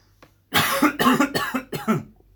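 A fit of four harsh, raspy coughs in quick succession from a person who is unwell, loud, with no talking around them.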